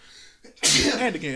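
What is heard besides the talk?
sneeze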